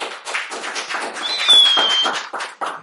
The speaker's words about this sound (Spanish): Gracias chicos, un aplauso para este podcast.